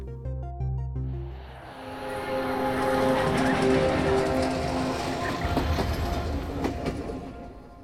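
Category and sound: vehicle, train rolling on rails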